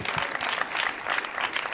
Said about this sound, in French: Vous pouvez applaudir très fort.